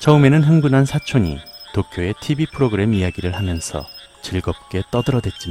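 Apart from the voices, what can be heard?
insects chirping at night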